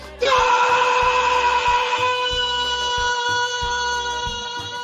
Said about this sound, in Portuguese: ¡Gol! ¡Vamos, Peña! Gritan sus compañeras.